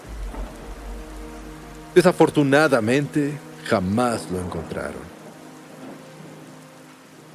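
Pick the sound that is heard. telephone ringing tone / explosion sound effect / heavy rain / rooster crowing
heavy rain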